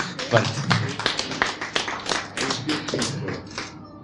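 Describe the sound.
An audience breaks into applause, many hands clapping in a dense, irregular patter that holds fairly steady for about four seconds, with faint voices mixed in underneath.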